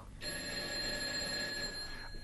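A bell, rung by a lord to summon a servant, rings continuously for about two seconds, a bright metallic ringing with steady high tones, loud and sustained before cutting off. No one speaks.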